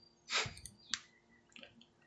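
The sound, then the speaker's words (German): A few soft, irregular keyboard clicks sound as a person types, with a brief cluster of taps at the start and a couple of isolated keystrokes afterward. “tippt und soll eigentlich die nächste News vorlesen, glaube ich.”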